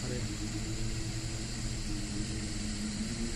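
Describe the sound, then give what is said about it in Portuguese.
A deep, continuous booming hum from a singing sand dune, steady and droning with layered low tones under a wash of wind-like hiss, sustained without a break throughout. “algumas dunas específicas no mundo, ah, elas é fazem é nova, um barulho.”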